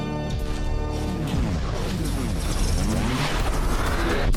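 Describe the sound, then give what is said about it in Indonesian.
A studio door creaks open with a long, loud groaning squeal that bends and slides in pitch for several seconds, with no voices. “Pintu studio telah terbuka.”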